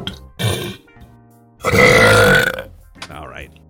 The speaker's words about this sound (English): Yes, I guess you can say I am the king of burps. Guys, we have royalty here.